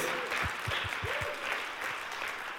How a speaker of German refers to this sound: Lass uns einen Applaus gegeben. Vor der Kamerabühne, überall. Ihr seid Heroes.